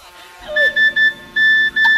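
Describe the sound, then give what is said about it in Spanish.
A mobile phone's electronic message notification tone chimes in a quick series of bright, high beeps with short gaps, fairly loud over a low background hum. “espérate que me está sonando el móvil. Un guasa de la arcayata”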